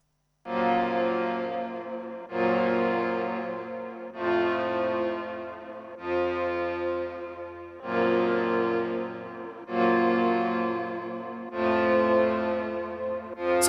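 A rap track's instrumental intro plays loudly, a rich sustained chord pattern repeating roughly every two seconds in a steady loop, with no vocals yet.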